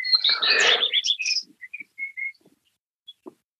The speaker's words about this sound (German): Ja, ich höre hier die Vögel, ich bin barfuß auf der Wiese.